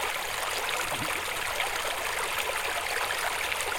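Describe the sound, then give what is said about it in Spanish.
A steady, continuous rush of the Manzanas River flowing in the valley below Santa Cruz de los Cuérragos, in the Sierra de la Culebra, Zamora, Spain, near the border with Portugal; a broad even wash of water sound with no voices. “Al fondo, en el valle, el río Manzanas.”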